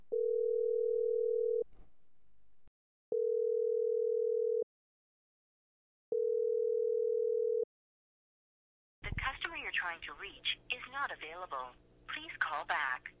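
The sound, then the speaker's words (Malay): After a telephone number is dialed, a phone's ringback tone sounds three times, each a steady hum of about a second and a half with equal pauses between. No one picks up, and then a voice starts talking. “Lalu nombor telefon di dial”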